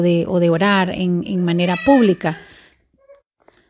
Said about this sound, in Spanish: Perdón si escuchan esos aullidos atrás, son mis perritas que las tengo aquí no portándose bien.